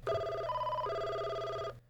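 A telephone rings with a loud, steady electronic tone that briefly shifts pitch partway through, then stops abruptly after under two seconds, with no voices, as a call to a show guest is being placed.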